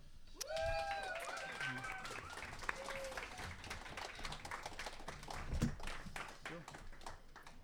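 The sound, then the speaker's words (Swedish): An audience breaks into sustained applause, a dense crackle of many hands clapping throughout, with a few shouts and whoops rising over it near the start. “Okej, okay, men ge dem en fet applåd!”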